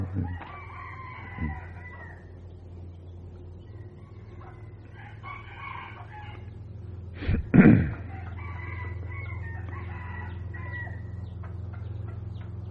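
Several roosters crow in overlapping, drawn-out calls over a steady low background hum, with a brief louder knock partway through. No one speaks.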